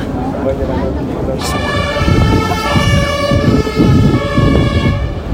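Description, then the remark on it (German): An ambulance siren starts after a second or two and holds a steady, loud wail over the low rumble of street traffic, with vehicles passing. “Keine Ambulanz. Kein Hupen. Kein Schreien. Kein Motorenlärm.”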